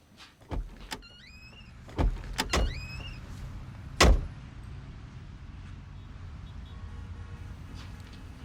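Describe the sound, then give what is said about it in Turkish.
A few sharp car door thuds and the whine of power windows, followed by a steady low engine rumble as a prosecutor's car pulls off, with no voices. “Arabadaki savcı Tarık değil mi? Evet o. Gittiğine göre keşif tamamlanmış demek ki.”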